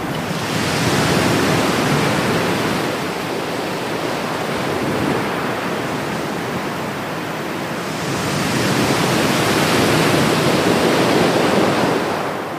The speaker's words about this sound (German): Denn nach dem Abstieg erstreckt sich ein menschenleerer, feinkiesiger Strand und ja, und plötzlich hört man da gar nichts mehr außer diesem beruhigenden Klang des Meeres.